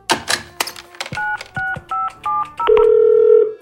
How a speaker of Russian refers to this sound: Я записал телефон дрессировщика. Позвоню и выясню, кто последний видел Матильду.